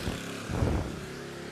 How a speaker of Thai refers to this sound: เป็นเสียงเรือมาดังนิดนึง